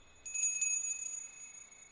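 Bright, high-pitched reindeer bells jingle in a cluster of quick shimmering strikes, then ring on and fade gently. No voices are heard.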